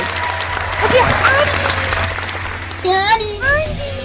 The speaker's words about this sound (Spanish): Vamos a darle un, un suculento aplauso.